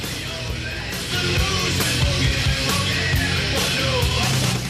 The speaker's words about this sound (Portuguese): É sensacional o som, esse crossover ma é, magistral realizado pelo …